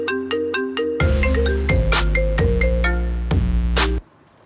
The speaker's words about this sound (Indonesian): tiba-tiba HP ini muni. Ah jebul, ono panggilan masuk sekolah lastri.